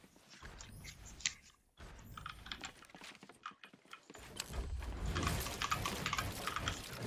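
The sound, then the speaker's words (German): Rapid, irregular clicking and clacking, like fingers typing on a keyboard, with a brief pause midway before the keystrokes grow denser and louder. No one speaks. “Äh, und setze euch nochmal neben die Tastatur.”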